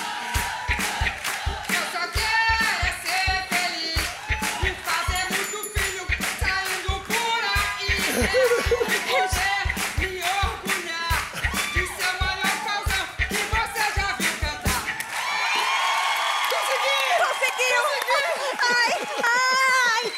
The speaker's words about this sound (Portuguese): Se elas não gritarem gostoso, eu não vou entrar no palco. Gritem!